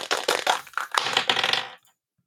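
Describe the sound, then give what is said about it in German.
Dice rattle and clatter in a quick burst of hard clicks for under two seconds, loud, then stop abruptly into silence, landing on a two. “dein Thema, ich würfel mal für dich.”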